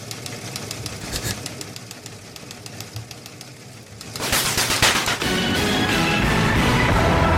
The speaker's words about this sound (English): Oh, so it's typewriters in an old fashioned newsroom? Yeah.